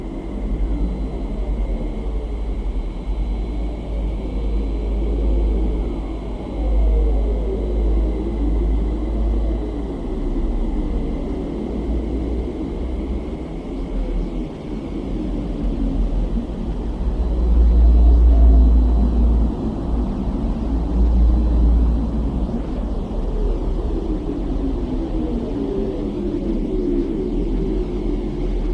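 Radio waves from space, picked up by an astronomical interferometer and converted into frequencies audible to humans: a steady deep rumble overlaid with eerie, repeating swoops that rise and fall in pitch, continuing for the whole stretch with no voices.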